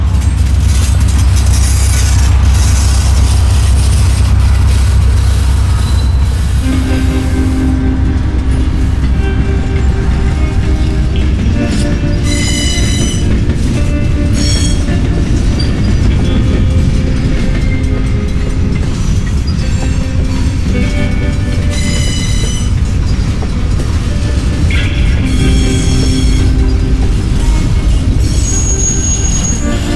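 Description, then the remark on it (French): A train rumbles loudly past over a level crossing, heavy low roar throughout, with repeated sustained high-pitched horn blasts and squeals over the passing cars, the longest blast coming last as it reaches the crossing; no one speaks. “Puis le plus grand coup, c'est le dernier. Ça veut dire qu'il est sur la crossing.”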